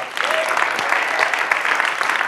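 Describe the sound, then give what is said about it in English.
A crowd applauds the worship band steadily, dense overlapping clapping from many hands sustained at an even level throughout, with no one speaking over it. “Let's let's hear it for them.”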